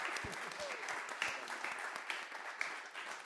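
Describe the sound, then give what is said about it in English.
A crowd applauds steadily at the end of a talk's question time to thank the speakers, with many hands clapping in a dense, continuous patter, a few sharper claps standing out, and faint voices mixed in underneath. “Please join me in thanking”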